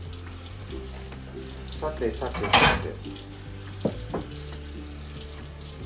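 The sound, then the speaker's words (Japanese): A short gush of running tap water rinses lettuce, framed by light kitchen clatter and rustling, while a man mutters briefly and a steady low electrical hum continues underneath. “どうなんだろう洗うかなえー、わかんないけど洗っちゃおうかとりあえず”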